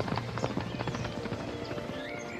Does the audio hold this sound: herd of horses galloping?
yes